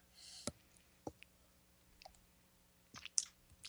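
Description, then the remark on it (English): Someone sips an IPA beer: soft, scattered mouth clicks and a faint slurp and swallow, with a brief wet burst near the end. Quiet overall, no talking. “Um, so I'm gonna give this give this a sip.”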